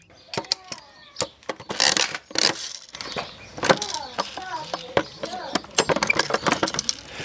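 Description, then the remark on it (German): A coin clinks into a small feed vending machine, followed by a run of sharp metallic clicks and rattles as a crank is turned, with faint high chirping underneath. “Schließlich steht hier ein kleiner Automat. Einfach Münze rein, drehen und Hand drunter halten.”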